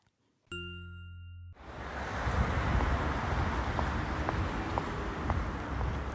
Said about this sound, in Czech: klapání bot a doprava kolem nás, to Víte, může co to znamenat znamená? jenom jediné. Máme tady další speciál z města.